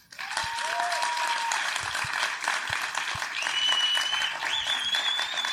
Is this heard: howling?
no